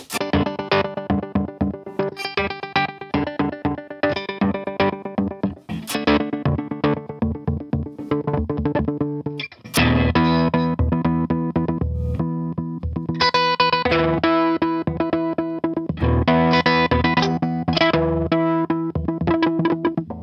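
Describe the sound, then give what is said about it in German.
Electric guitar played through an effects pedal on its H3 preset, loud, with choppy strummed chords and riffs that swell into a denser, heavily processed wash midway, no voices. “Geh mal, ähm, wenn du weiter drehst, dann kommen irgendwie diese H-Sounds, die sind irgendwie nochmal so ein bisschen abgefahren, glaube ich.”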